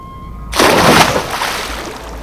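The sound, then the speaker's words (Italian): A body falls into the sea with a sudden heavy splash, loud, followed by a second or so of fading churning and sloshing. No voices. “Il mare. Sono... sono salvo. Riemergo.”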